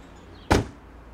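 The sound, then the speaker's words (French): A single solid thud of the door of a loaner car shutting, fairly loud, with a brief low rumble fading quickly into a quiet background. No voices. “Je ferme la portière de la voiture que les assurances me prêtent depuis mon accident”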